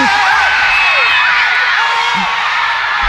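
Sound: screaming fans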